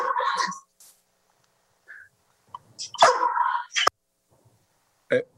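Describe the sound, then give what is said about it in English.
A puppy barks and yips in a few short, high-pitched bursts separated by quiet pauses, moderately loud, with a couple of faint smaller sounds in between. “Once again, sorry for the puppy.”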